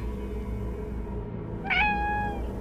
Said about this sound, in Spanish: Sus maullidos sonaban amortiguados por culpa de una playera. La quité, sonreí y grité.